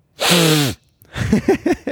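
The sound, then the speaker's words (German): A loud, breathy nasal burst with a falling voiced tone, followed by a quick run of four or five shorter sniffing bursts, with no talking. “Ah, sorry für das Schniefen, das habe ich schon lange nicht mehr gemacht.”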